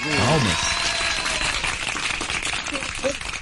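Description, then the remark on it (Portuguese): A steady, dense patter of hand clapping applause for footballer Felipe Coutinho, after his donation of food to Rio de Janeiro neighbourhoods, runs through the whole clip, with voices rising briefly over it at the start and again near the end. “Parabéns a Felipe Coutinho. Palmas.”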